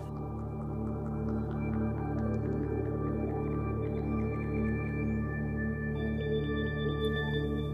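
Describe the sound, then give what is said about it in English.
Regular, evenly spaced underwater foraging clicks from sperm whales tick away on a directional hydrophone during an acoustic recording at the end of a survey transect, faint beneath a steady, droning hum of boat noise. “Marta heard the regular foraging sperm whale clicks and used a directional hydrophone to figure out where they were”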